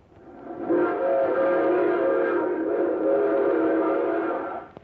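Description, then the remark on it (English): A train whistle blows in one long, sustained blast, loud, with a rich stack of steady tones that swells in and holds for several seconds before cutting off. “No, no, no, no. That's a train.”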